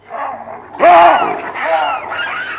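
Baboons bark in a loud chorus, their numbers growing, several harsh overlapping calls bursting in after a quieter opening and continuing in agitated, rising and falling cries.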